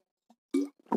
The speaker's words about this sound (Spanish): Un traguito de, agua. No penséis que está uno bebiendo solo aquí. Pues, podría ser Ginebra. pues total, ya para lo que nos queda en el convento. Pero no, no está siendo así.